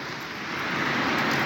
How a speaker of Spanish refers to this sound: estamos en pleno centro de Santiago. Este episodio épico. Episodio épico. El río de autos navega a nuestra diestra.